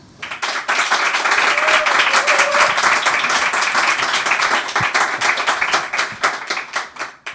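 A crowd breaks into steady applause, many hands clapping in a dense, sustained wash that holds loud for several seconds before thinning out toward the end.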